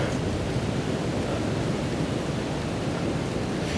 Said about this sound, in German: Jetzt hört man mal hier Waldesrauschen, also ich höre das, das sollte wahrscheinlich auch auf der Aufnahme drauf sein.